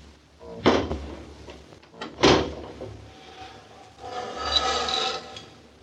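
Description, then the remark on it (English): Two solid wooden thumps, a second or so apart, as windows are shut, followed by a longer rasping slide of blinds being drawn. Fairly loud, with no talking. “Shut the windows and draw the blinds.”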